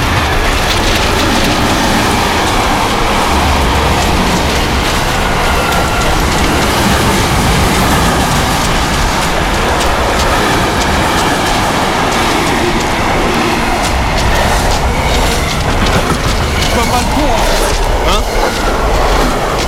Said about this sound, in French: Attends que le train passe.